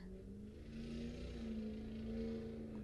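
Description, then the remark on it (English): A motorcycle engine drones steadily as it drives by on a road, its pitch rising slightly as it passes, with a constant roar of road noise and no voices. “that motorcycle drove by.”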